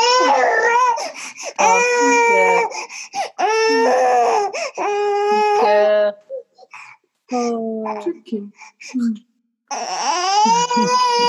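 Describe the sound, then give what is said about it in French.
A baby cries loudly, wailing in several long, strained bursts separated by short gasping pauses, with a softer whimper between the louder cries. “Et, mon bébé est d'accord. Il nous a rejoint. Elle nous a rejoint.”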